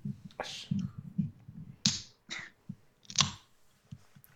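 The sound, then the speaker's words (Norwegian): A green drink can pops open with a sharp crack and a brief fizzy hiss, followed by several more crisp clicks and snaps over a low background rumble. “Nei, det, det, var, det var en eh, normal pop.”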